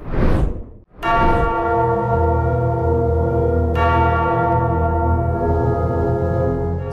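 Church bells ring loudly, with a couple of clear strikes whose deep, resonant tones hang and overlap in a long sustained hum. No one speaks.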